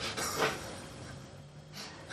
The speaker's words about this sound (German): Heute rollt er nicht die Augen, heute kriegt er keine Luft mehr. Ist mal ein gänzlich anderes Verhalten.